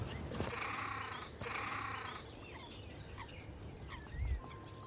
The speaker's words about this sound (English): Extraordinary noise. That was the call of the great crested grebe. It's gone underwater. I've never heard a great crested grebe call before. It was odd. Yeah, like a donkey.